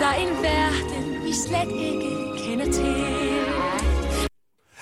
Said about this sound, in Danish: Den første Disney-sang, I får en bid af, lyder sådan her.